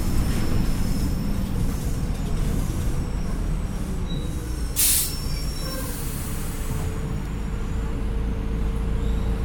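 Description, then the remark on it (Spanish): A city bus (colectivo) engine rumbles loudly and steadily, a deep droning roar with faint whining tones above it and a short sharp hiss of air partway through, its noise peaking at 93 decibels; no one speaks. “Esos ruidos que hace el colectivo han picado en 93.”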